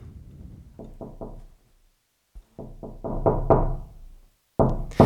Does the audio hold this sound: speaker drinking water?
no